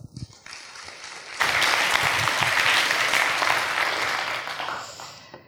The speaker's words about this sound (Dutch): Graag eh, uw aandacht en een hartelijk applaus